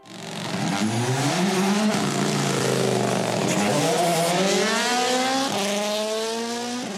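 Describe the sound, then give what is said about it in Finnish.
A rally car engine revs hard and loud at the Jyväskylä rally in early August, rising in pitch through repeated gear shifts as it accelerates past, with a rough, snarling tone and no talking. “Jyväskylän rallissa elokuun alussa oli mukana jo ennalta kohuttuja nimiä.”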